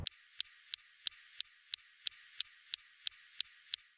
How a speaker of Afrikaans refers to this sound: Next, we have the Supercam laser zapping rocks.